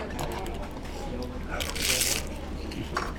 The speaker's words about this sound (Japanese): 厚揚げの外側の部分の食感と海苔の風味が合わさったようなこれをちょっとさっきのパーコー麺のスープにくぐらせて食べてみます